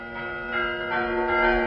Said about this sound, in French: Un sonneur de cloche présenté en 1961